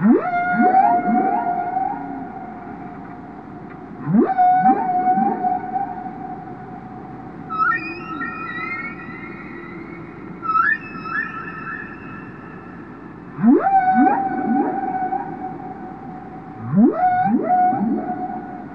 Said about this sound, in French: Depuis la nuit des temps, depuis que l'homme voyage sur les mers et les océans, il a probablement toujours entendu le chant des baleines. Pendant longtemps, il en a ignoré l'origine.